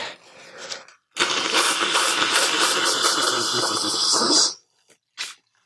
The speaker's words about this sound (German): Ich, ich putze mir nochmal die Nase.